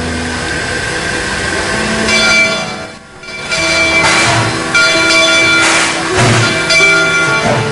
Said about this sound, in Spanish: Con esa campana, este tren va llegando a su destino. Va llegando con ese con ese ruido de fondo en medio del campo,